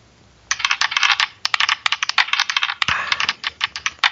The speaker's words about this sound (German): Da hoffe ich mal, dass ich jetzt nicht die 1 würfel. Weil sonst musst du jetzt alles nochmal lesen. Ach so, naja, stimmt. Würfel mal.